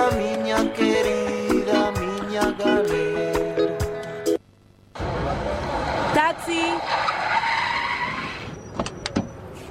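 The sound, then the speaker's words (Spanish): A car roars past at speed, then after a brief drop-out comes a loud, sustained screech of tires skidding over the rumble of the engine, intense. “Chofer, siga ese auto.”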